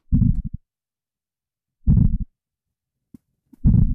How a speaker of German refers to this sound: Und dieser kleine Fisch, der kann Sounds machen, die 147 Dezibel laut sind. Und so klingt das dann unter Wasser.